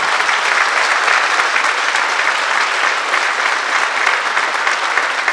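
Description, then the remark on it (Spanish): Steady, dense applause from an audience applauding God after a prayer, many hands clapping at once in a continuous bright wash that holds an even, loud level for the whole stretch with no voices standing out. “Denle un aplauso al Dios que hace milagros, que nos bendice y que nos tiene en este lugar.”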